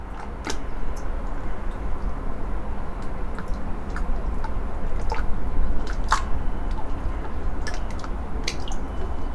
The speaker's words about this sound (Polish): I to wszystko w, właśnie w kontekście takiego drobiazgu dźwiękowego, tego mlaskania.